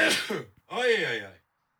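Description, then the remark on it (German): A loud, sharp, breathy burst is followed after a brief pause by a voiced, rising-and-falling vocal sound, like a sneeze with a drawn-out follow-through. “Gesundheit. Oh, ich bin schon wieder allergisch auf Podcast.”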